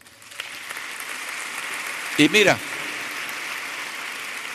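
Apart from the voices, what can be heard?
audience applause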